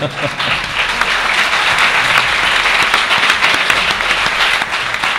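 A crowd breaks into steady applause, many hands clapping in a dense, continuous patter that stays loud throughout with no pauses.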